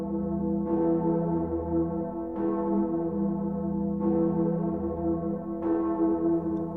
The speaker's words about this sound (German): Oder die Gloriosa in Erfurt, bekannt auch als die Königin der Kirchenglocken.